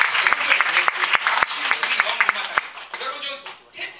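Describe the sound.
An audience applauds in a dense, steady wash of clapping to thank Jesus, with sharp individual claps cracking out above the rest; voices mingle in as the applause thins toward the end.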